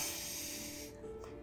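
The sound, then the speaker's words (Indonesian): A voice imitates heavy breathing with a single long, rough, hissing exhale that lasts under a second, fairly loud, then fades to near quiet. “terus gue lagi ngobrol-ngobrol tiba-tiba ada suara kayak nafas suara nafasnya berat banget”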